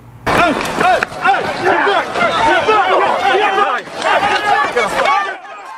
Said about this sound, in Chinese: 视频中可以听到人群中有人大喊“刀子，刀子，刀子”。